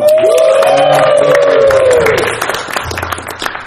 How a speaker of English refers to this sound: so that was an applause break.